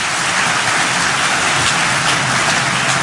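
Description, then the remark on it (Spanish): A crowd applauds steadily, a dense, even wash of many hands clapping at once that stays loud and unbroken for about three seconds, with no voices over it. The applause is for the community members who worked on a completed project. “Un aplauso a todos los comunitarios que han trabajado con nosotros”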